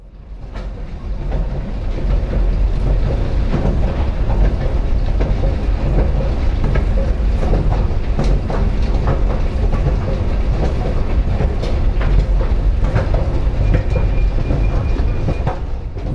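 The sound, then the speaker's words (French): A metro train in a metro station rumbles loudly, building up in the first seconds and then roaring steadily with rattling, clattering wheel clacks throughout, with no voices. “Nous descendons dans la station de métro”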